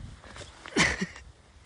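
A container of alcohol drops and lands with one sharp, bang-like impact, followed a moment later by a smaller knock, then quiet room tone. No voices.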